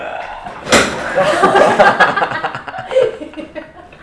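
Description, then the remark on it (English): A sudden loud crack and clatter of a chair breaking, followed by a few seconds of people laughing and chuckling. “just broke the chair.”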